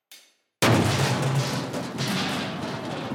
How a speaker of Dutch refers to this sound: Ik leun voorover door het open raam en speur naar waar die herrie vandaan komt. In een afgezakte spijkerbroek staat een man met ontbloot bovenlijf stijgerplanken te stapelen.